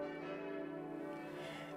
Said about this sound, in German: Schon ein Jahr vor der Kirchenweihe wurden bei Perner in Passau die fünf Glocken gegossen. Ihre Grundtöne stimmen mit dem Anfang der Salve Regina Melodie überein und läuten darüber hinaus in musikalischer Harmonie mit den Glocken der benachbarten